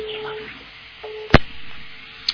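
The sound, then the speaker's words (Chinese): A steady mid-pitched telephone ringing tone sounds in short bursts with pauses between on an unanswered call, then a sharp click cuts in as the caller hangs up, followed by another faint click near the end. No voices are heard. “一、二、三，还不接是吧？嗯，那没办法了，我挂电话了啊。”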